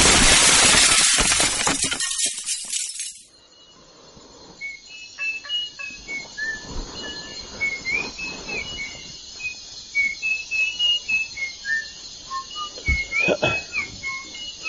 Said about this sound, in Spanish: La grabación es del año 2010 y está realizada durante la noche en la selva amazónica durante una ceremonia de ayahuasca.